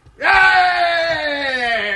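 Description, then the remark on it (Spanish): A person imitates a roller-coaster scream: a loud, sustained vocal wail that starts abruptly and holds for nearly two seconds, pitch slowly sliding downward. “Entonces, imagínate tú que vas detrás de, Speedy and you're, ah. you're screaming.”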